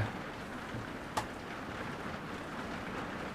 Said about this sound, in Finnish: Mutta tämä, laantuu, tämä sade, tämä niin kuin alkaa, kuunnelkaa. Sieltä alkaa Ihan niin yksittäiset pisarat alkaa kuulla. Ne on isoja ne pisarat sormenpään kokoisia.